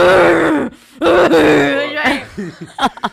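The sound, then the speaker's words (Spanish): A voice imitates a guttural, possessed-sounding groan: two long, strained, drawn-out moans, then it breaks off into short choppy bursts like stifled laughter. “Pero de repente se, se tornó como como si estuviera poseído, como...”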